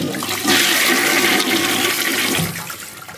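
A toilet flushes, a loud rushing gush of water that surges for a few seconds and then tapers off as the bowl refills. No one speaks over it.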